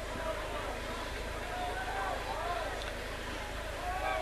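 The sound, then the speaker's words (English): A steady, loud rumble of a train going by Duncan Field during a football game on a very windy night, a dense roar that holds evenly throughout, with faint crowd murmur and wind mixed underneath. “Another train going by here. So you may hear some loud noises here.”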